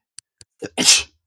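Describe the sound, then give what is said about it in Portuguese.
A single loud sneeze bursts out after a couple of faint clicks and a quick sharp intake of breath, with no talking. “Ai, não estava tá a contar com isto, eu espirrei.”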